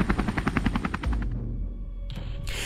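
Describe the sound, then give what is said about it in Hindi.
An Indian Coast Guard rescue helicopter's rotor thumps in rapid, evenly spaced pulses for about a second as it arrives at the Sentinelese island after a tsunami, then fades into a steady low engine rumble, with a brief hiss rising near the end. “लेकिन जब Indian coast guard का रेस्क्यू हेलीकॉप्टर वहां पहुंचा तो उस हेलीकॉप्टर का स्वागत एक बार फिर तीरों से किया गया और उस हेलीकॉप्टर को वापस आना पड़ा”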